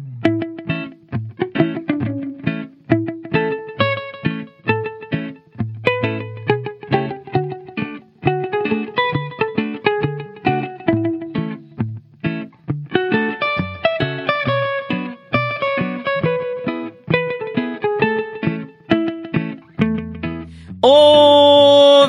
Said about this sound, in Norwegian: ringer romjulstiden inn med en fantastisk vignett laget av Fridtjof Rige Nilsen på en Stratocaster 1977.